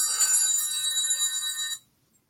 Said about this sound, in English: I'm very unprofessional. My phone rang.